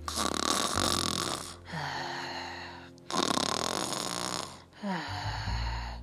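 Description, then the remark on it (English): Loud snoring from a man: two full cycles of a rough, rattling inhale followed by a lower, rumbling exhale, repeating in a slow steady rhythm with no talking. “Next week, while Sam was snoring,”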